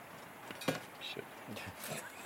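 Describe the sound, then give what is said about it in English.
A cheap suction cup pops free from the back of an aluminium plate with a single sharp smack, followed by a few faint clicks and rustles in an otherwise quiet space. “That was the sound of the cheap sucker coming away from the back yeah, of the uh, the, the aluminium.”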